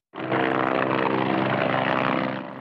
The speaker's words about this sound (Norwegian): En pilot skimtes bak et vindu i et militærhelikopter. Det kan ta to timer før det kan forlate basen her på Rygge i Østfold.